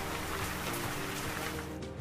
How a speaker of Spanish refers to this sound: Atacado por el aire y por el agua y caen las gotitas como si fuese una lluvia de verano.